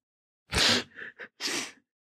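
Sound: sneeze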